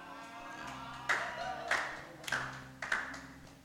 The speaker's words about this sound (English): It's a good thing to clap. Yeah.